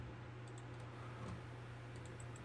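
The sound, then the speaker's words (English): Soft, scattered clicks of computer keyboard typing and clicking by someone doing graphic design, irregular and fairly faint, heard over a steady low electrical hum with no one talking. “If y'all hear a lot of clicking, don't mind me. I'm over here doing the graphic design.”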